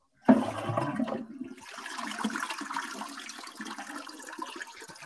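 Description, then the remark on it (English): A toilet flushes, opening with a sharp loud rush of water at the start, then settling into a steady swirling gurgle and hiss as the bowl drains and refills. “You just got flushed.”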